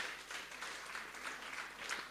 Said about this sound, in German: Vielen Dank, dass ihr euch traut. Ist auch nichts Schlimmes, ist was ganz Tolles. Gebt ihm mal einen Applaus, jawohl.